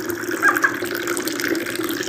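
A steady stream of water pours from a height into a cup or pot for a first tea infusion, a continuous splashing trickle with no break and no voices.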